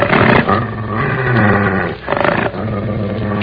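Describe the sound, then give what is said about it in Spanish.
A dog growls loudly and continuously, breaking into two sharp, agitated bursts of barking, one at the start and another near the middle, with no voices. “Váyase, señor, para que se sosiegue el perro.”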